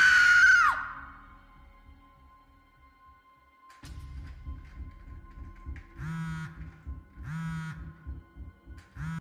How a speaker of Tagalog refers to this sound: At ang tangi ko na lamang nagawa ng mga oras na iyon ay ang sumigaw. Sigaw na pumunit sa katahimikan ng gabi.